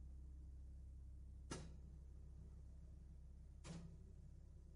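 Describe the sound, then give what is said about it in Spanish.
The door of a waiting room opens with two sharp, brief clicks of the latch and handle about two seconds apart, set against a steady low room hum with no one speaking. “Se abre la puerta de esa sala de espera.”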